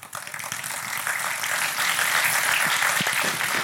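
Loud, sustained applause from a crowd, a dense continuous wash of many hands clapping that swells in the first moments and holds steady throughout, with no voices standing out.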